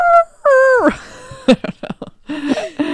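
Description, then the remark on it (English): A voice imitates an elephant's trumpeting: two loud, strained, wavering calls that bend downward, then several short choppy bursts and a final gliding cry. “what if I gave you like an elephant?”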